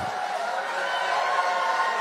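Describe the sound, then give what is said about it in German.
An audience at a Donald Trump speech laughs, hollers and cheers in a steady, continuous roar of many voices, holding at an even loudness for the full two seconds with no single voice standing out. “Das Publikum lacht und johlt.”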